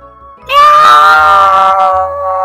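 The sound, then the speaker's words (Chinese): A voice imitates a fat cat screaming after being stung by a bee: one loud, sustained, high-pitched wail that starts abruptly and holds steady for about two seconds before easing off slightly. “它尖叫起来，”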